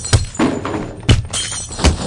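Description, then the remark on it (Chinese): Heavy objects being smashed and knocked over in an old family house by men collecting a debt, three sharp thudding crashes with clattering debris and scraping between them, loud and chaotic with no talking. “给我砸！”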